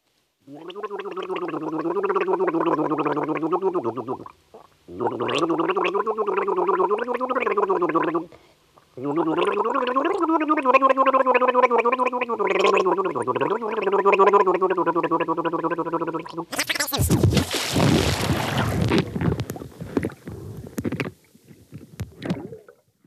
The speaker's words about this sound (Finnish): miltä kuulostaa musikaalinen kurlaus. Hän esittää ensin kurlaten kevät tunnelman.